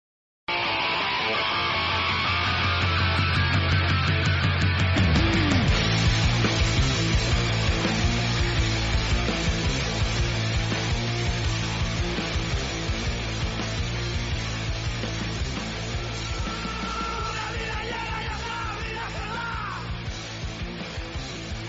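A recorded song plays loud and continuous for about twenty seconds, a dense full-band mix with steady bass and strong, raw vocals running throughout, with no talking over it.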